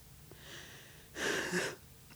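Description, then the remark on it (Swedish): A person demonstrates labored breathing, as if stifled, hot and unable to breathe: a soft breathy inhale, then a louder, harsh gasp for air lasting about half a second, with no speech around it. “Och det blev det bara som var kvav och varm och kunde inte andas.”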